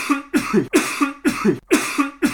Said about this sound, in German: Das ist nur ein Huster, aber ich spiele ihn drei oder viermal ab, okay?